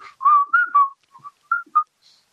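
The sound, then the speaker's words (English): A person whistles a short, bouncy pop tune, a few quick notes then a run of separated phrases, clear and fairly loud with no talking. “Everybody was whistling this, and I wasn't.”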